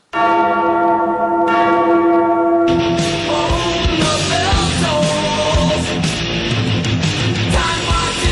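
Church bells ring changes, loud: one sustained tone opens, then a full peal of overlapping bells tumbles in a steady cascading rhythm, with no voices.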